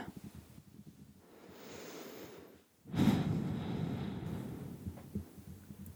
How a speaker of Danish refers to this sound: Og så lige tage nogle dybe, gode vejrtrækninger, og lige sådan sidde og ryste lidt ud af kroppen, så du lige får roen.